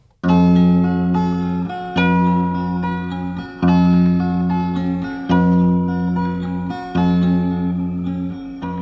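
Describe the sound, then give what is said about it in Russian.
An instrumental song intro played on air, with loud, sustained harmonic chords that shift roughly every second or two, a slight echoing ring and no voices. “бабье лето будет впереди во всех регионах России, и об этом поет …”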